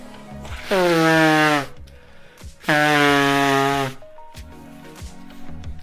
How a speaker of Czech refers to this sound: Přátelé, se omlouvám, se vysmrkám.